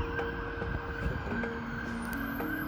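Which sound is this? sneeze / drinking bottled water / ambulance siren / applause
ambulance siren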